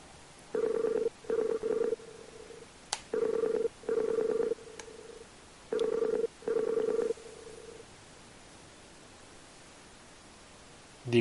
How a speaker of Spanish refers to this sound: Y vamos a hacer el típico sonido de llamar.